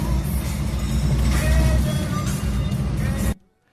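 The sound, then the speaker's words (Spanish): Steady low rumble of road noise from inside a moving car, recorded in a WhatsApp voice message, loud and continuous for about three seconds with faint higher hiss, then cutting off abruptly to near silence. “A ver, este creo que trae bastante sonido, ¿no? Este se me andaba yendo Échame Que iba en el carro.”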